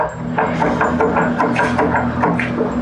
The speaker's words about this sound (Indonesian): Nah ini ketok-ketok. Woi siapa tuh?